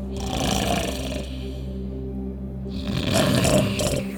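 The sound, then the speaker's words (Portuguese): A person snoring heavily: two long, loud, rasping snores with a low rumbling buzz, separated by a brief quieter pause, and no talking. “Por que ele está emitindo este barulho estranho? Isso, crianças, é um terráqueo dormindo, se reabastecendo através do recolhimento dos sentidos.”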